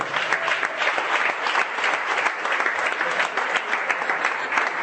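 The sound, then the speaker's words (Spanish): An audience claps steadily and loudly for about five seconds for three participants called to the front, a dense, continuous patter of many hands with no voices breaking through. “Denle un fuerte aplauso a esos tres enanitos, por favor.”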